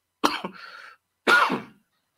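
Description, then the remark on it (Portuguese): Two harsh coughs about a second apart, the first breaking into a raspy, throaty tail, the second a single forceful burst. No talking, with silence around them. “A tosse já, a tosse já, já chegou, hein?”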